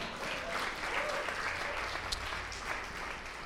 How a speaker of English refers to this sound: How about a hand for James?